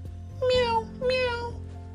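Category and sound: animal, cat meowing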